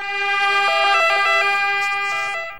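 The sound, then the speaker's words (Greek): A loud ambulance siren wails, its two-tone pitch switching back and forth steadily for a couple of seconds as the ambulance heads toward the hospital, with no talking over it. “Ήρθα το ασθενοφόρο πράγματι μετά από λίγη ώρα.”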